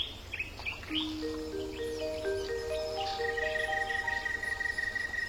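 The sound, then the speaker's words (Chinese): Birdsong heard outside a window, with a few quick chirps at first, then long, steady whistled notes overlapping at several pitches, set against a constant insect-like buzz. No one speaks. “醒来后，窗外响起鸟鸣声。”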